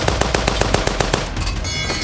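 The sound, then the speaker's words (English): A loud burst from a Vickers machine gun firing .303 rounds: roughly ten rapid, evenly spaced sharp cracks over about a second, then a dense rumbling, hissing wash of noise that lingers after the firing stops. “Just as the cultists were realizing that they were now the ones under attack, Wut Brakes dropped his pistol and raised the Vickers, spraying the left flank with a fusillade of 303s.”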